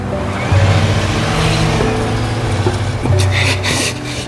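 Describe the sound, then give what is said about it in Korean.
A car engine revs loudly and continuously as the car struggles to get out of a pit, its low droning pitch surging upward in a couple of strained bursts, with a gritty, churning rumble underneath and no talking. “이제 이 차까지 말썽이구나. 이 차까지. 그리고 한순간 차가 구덩이를 빠져나왔다.”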